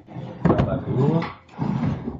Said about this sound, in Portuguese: Deixa eu abrir outra gaveta aqui.